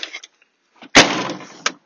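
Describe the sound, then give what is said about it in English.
The lid of a paper or food wheelie bin slams shut with a loud, hollow thud that rings briefly, preceded by faint rustling and scraping and followed by a smaller knock as it settles. “That's uh, the paper bin and the food bin.”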